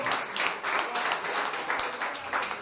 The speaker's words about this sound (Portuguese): Aleluia, aplauda bem forte ao Senhor.